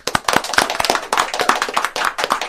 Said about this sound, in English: How about a round of applause around the studio?